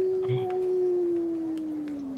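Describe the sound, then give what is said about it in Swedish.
A long, steady howl drawn out in the distance, holding one tone before slowly sliding lower, with faint background noise around it. “något, här, något y- ylande på avstånd.”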